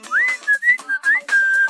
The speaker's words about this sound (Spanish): del silbido, no piense mal.